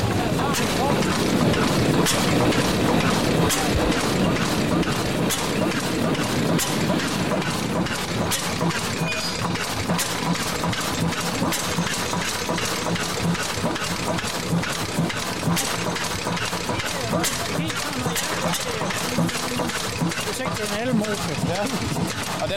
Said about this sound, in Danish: og så starter vi jævnligt nogle motorer op uden. Nu kan se, nu har han ved at, at starte den der, der kom fra Rødkøbing der.